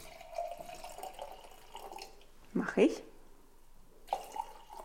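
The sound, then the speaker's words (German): Wine is poured into a glass in a few short, gurgling splashes, while a voice speaks briefly over a quiet room. “Du darfst übrigens auch gleich einschenken.”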